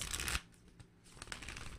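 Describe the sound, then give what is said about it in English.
A deck of cards being shuffled up close: a dense burst of riffling at the start, then softer scattered card snaps and a second flurry of shuffling. No one speaks. “So let's, let's shuffle this real good for you guys.”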